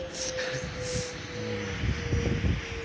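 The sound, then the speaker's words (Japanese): A steady, fairly loud airplane drone fills the background, a continuous engine rumble with a sustained hum that swells slightly toward the end, heard on its own without any talking, as the speaker walks to a bus stop in Kakamigahara, where planes often fly over. “何の音だ あー、飛行機ですね。”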